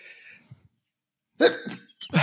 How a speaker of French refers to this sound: pardon, éternuement.